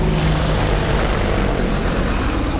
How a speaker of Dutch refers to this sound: worden we er even aan herinnerd dat we hier vlakbij militair oefenterrein zitten. Twee luchtmachthelikopters vliegen rakelings over de toppen van de bomen.